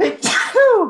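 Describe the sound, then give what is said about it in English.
A single loud sneeze: a quick breathy intake, then an explosive burst of noise that trails off into a brief voiced tail, with no talking over it. “Bless you. Sorry about that.”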